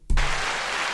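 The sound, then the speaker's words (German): A sudden burst of applause, played as a sound effect, starts with a low thump, then continues as dense, steady clapping and cheering noise, loud, with no voices over it. “Äh, jetzt gibt es natürlich noch einen fetten Applaus.”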